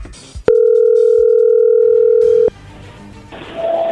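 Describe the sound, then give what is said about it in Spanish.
A single loud ringback tone from an outgoing phone call: one steady, mid-pitched electronic hum lasting about two seconds, then a soft rustle and hiss. “Bueno, a ver, ahí ya entró la llamada, no haga ruido.”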